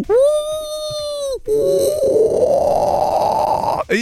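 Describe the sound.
A voice imitates a whale's mating call: a long, steady, resonant hum, then a harsher, gravelly drawn-out moan, loud with no speech.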